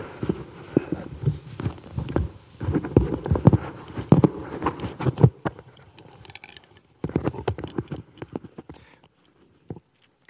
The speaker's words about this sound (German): Jetzt fällt mein Mikro hier runter.